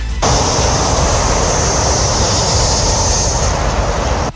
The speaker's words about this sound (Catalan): reduir la contaminació acústica a la zona produïda pel trànsit de l'autopista